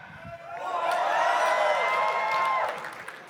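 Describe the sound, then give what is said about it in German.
An audience cheers loudly as if for Germany winning the World Cup, many voices rising into a sustained, high shouting roar that holds for about two seconds before quickly dying away. “Wie jubelt ihr?”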